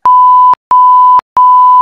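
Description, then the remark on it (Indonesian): Three loud, steady censor bleeps, each a flat mid-pitched tone lasting about half a second, separated by short silent gaps with sharp clicks at the start and end of each. “sensor-sensor kayak barusan tuh”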